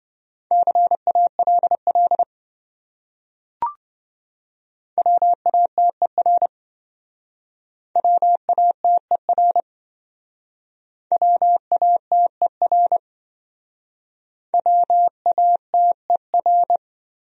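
Morse code sent at about 20 words per minute as speed practice on common English words: a steady mid-pitched tone keyed in quick dits and dahs, forming five short bursts separated by pauses, with a brief click early on.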